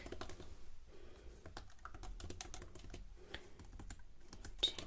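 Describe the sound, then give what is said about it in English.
Rapid typing on a computer keyboard while checking a guest in at a luxury hotel, a steady stream of crisp key clicks with brief pauses, quiet with no voices. “ASMR Checking You In at a Luxury Hotel - Whispering, Typing”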